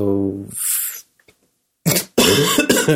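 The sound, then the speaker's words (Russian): A voiced throaty sound and a breathy burst, then a pause before a pair of harsh coughs in quick succession, loud and raspy. “кашляю, переминаюсь э, с ног э, на голову”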